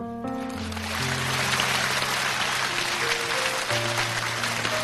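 A crowd claps steadily and loudly for about five seconds, a dense wash of applause over sustained musical chords playing underneath. No one speaks.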